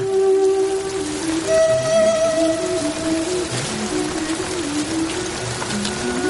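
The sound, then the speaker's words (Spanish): Heavy rain pours down in a dense, steady hiss that fills the whole clip, soaking the shirt of a man kneeling on garbage bags, with low, sustained droning tones wavering faintly over it. “La lluvia empapa su camisa, rompe otra bolsa.”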